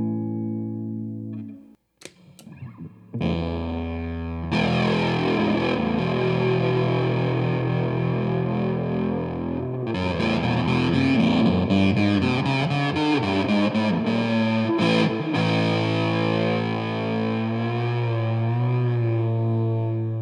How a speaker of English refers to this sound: was a comparison between a clean guitar sound and the fuzz sound of a big muff pedal.